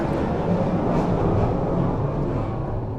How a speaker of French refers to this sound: Ah, avion. Attends, on va couper. On, nous surveille là-haut.